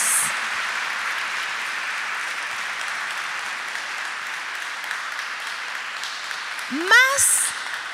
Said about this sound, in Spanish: Yo ser ustedes le daría un aplauso al Rey de Reyes, al Señor de Señores.